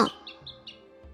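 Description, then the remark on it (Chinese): Three quick, high-pitched sparrow chirps in a steady run, fairly soft, with a low hum underneath and no one speaking. “三娘对小麻雀也真的好啊”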